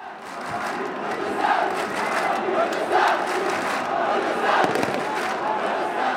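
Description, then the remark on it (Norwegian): A huge crowd roars without pause in a sports stadium in Erbil, Iraq, as police and soldiers hold it back: a dense wall of shouting voices that stays loud throughout, swelling in a few brief surges of louder cries. “Det koker i folkehavet.”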